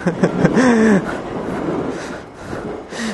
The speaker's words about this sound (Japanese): 駅からずっと線路沿いに来てるんで、それはもう電車が通ろうっていう。